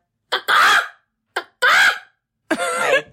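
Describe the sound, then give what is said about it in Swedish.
A person vocally imitates a giraffe call: three short bursts, each a sharp clipped onset followed by a strained, squawking vocal cry, sounding somewhat hen-like, fairly loud. “Får jag gissa? Ja. Jag tror det låter så här.”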